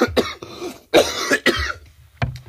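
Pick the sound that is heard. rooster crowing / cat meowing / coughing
coughing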